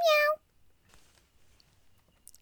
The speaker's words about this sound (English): They were covered in fur and had whiskers just like a kitty. Meow